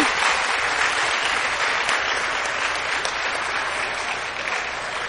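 Sustained audience applause for the winner of a bingo draw, a dense wash of many hands clapping at steady loudness for several seconds, tapering slightly toward the end with no voices standing out.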